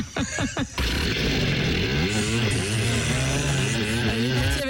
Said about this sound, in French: Ah, et eh ben voilà, tiens, j'enjambe le scooter et je m'en vais. ah, vous voulez le son du scooter